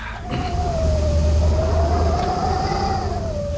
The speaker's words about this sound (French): C'est un vent glacé de Sibérie. D'accord. Je vous emmène dans la ville la plus froide du monde. Oh À Yakoutsk en Sibérie.